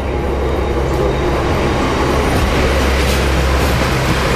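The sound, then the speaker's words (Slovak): An Austrian train at Bratislava main station rumbles steadily throughout, a loud, continuous low roar with a broad hiss layered on top and no distinct clacking rhythm. No one speaks. “A já si dělám fotky, třeba prostě fotím si to a teďka si udělám taky tady fotku vlaku, to si musím udělat tady, tady, e, protože to zase tak často nevidím, rakouský vlak.”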